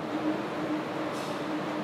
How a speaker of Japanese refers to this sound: えちょっと今中断してもう一回今電車駅の中に入って再開してるんですけれども